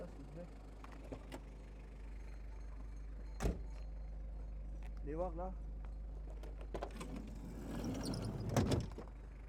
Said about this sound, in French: Vous voulez m'ouvrir euh, la porte arrière